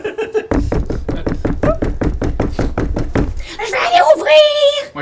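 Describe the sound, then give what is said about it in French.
A rapid, loud burst of knocking on a door, more than a dozen quick, evenly spaced raps, followed by a voice speaking briefly as the knocking stops. “je pense qu'à ce moment-là, ça cogne à la porte.”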